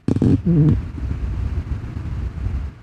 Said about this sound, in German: Das ist der Ventilator, der mir so leicht, leicht angenehm hier ähm, in den Nacken rein äh, bläht. Das ist irgendwie ganz, mhm. irgendwie ganz schön.